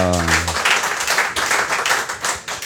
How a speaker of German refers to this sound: Haben Sie verstanden ja, mit dem Klatschen.